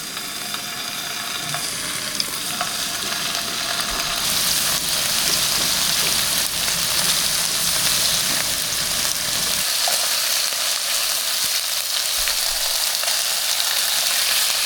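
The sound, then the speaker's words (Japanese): Steady sizzling of yellowtail (buri) and daikon simmering in a pan to make buri daikon, a winter dish, a dense crackling hiss that stays loud throughout with occasional soft clicks and stirring, and no voices. “今朝は冬においしいブリと大根で作るブリ大根のいい音それではお聴きください”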